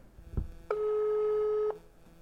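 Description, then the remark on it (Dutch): A single steady electronic ringback tone from an outgoing phone call, placed to ask someone a few questions, sounds for about one second, clear, with a soft thump just before it and no voices. “En die eh, jongen in het zwarte trainingspak, die eh, gaan we even bellen om een paar vragen te stellen.”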